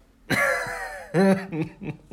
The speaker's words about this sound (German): Und durch diesen Husten habe ich so einen richtigen, habe ich so einen richtigen Raucherhusten bekommen irgendwie.